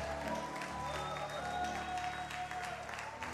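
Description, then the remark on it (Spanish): A crowd applauding steadily at a worship gathering, a dense wash of clapping and shouts of joy and praise offered to Jesus, blended together, fairly loud and continuous throughout with a sustained musical tone underneath. “Un aplauso a Jesús por su amor, por su gracia, por su misericordia.”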